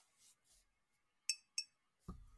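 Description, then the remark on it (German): Two sharp, bright clinks of a wedding ring tapping a glass bottle, a short ringing tone each, spaced about a quarter second apart, followed by a low thud or voice-like rumble at the end. “Ich bin mit meinem, mit meinem, mit meinem, mit meinem Ehering gegen meine Glasflasche gestoßen.”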